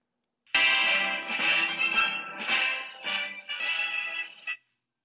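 A telephone ringback tone plays on an outgoing call to Bazhong Prison in Sichuan, China: a bright, buzzy electronic tone that sounds steadily for about four seconds with slight wavering and brief dips, then cuts off. No one speaks.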